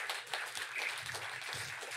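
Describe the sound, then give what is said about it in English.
A round of applause from a crowd, dense overlapping claps forming a steady hiss of clapping that holds for a couple of seconds at moderate volume with no talking. “That's a well deserved round of applause.”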